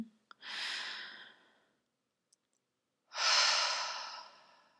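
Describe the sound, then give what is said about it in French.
A breathy inhale is followed after a short pause by a louder, long, airy exhale that slowly fades out. There is no talking. “Tu peux prendre une grande inspiration, une grande expiration.”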